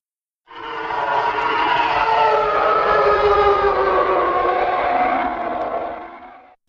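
A loud, sustained screaming roar of the Imperial fighter engines from the Star Wars films, a harsh layered howl holding steady for about six seconds before cutting off, with no voices.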